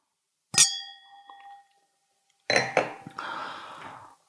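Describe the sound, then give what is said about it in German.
A single bright strike rings out with a sustained, fading tone, then after a pause comes a busy burst of glassy clinking and clatter of two champagne glasses knocking together. “Mm, und dann sagte er, zu der Fahrradklingel gehören natürlich noch dazu zwei Champagnergläser.”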